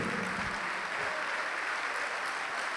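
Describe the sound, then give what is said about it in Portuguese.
An audience applauds the Lord together in a steady, dense wash of clapping that holds at an even level for the whole stretch, with a faint murmur of voices underneath at the start. “Isso vem, vamos aplaudir mais ao Senhor.”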